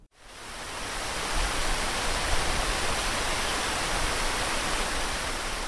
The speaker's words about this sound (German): Draußen prasseln die Fluten des Monsuns herunter. Über Meer und Küstenland liegt eine einzige düstere Wolkendecke.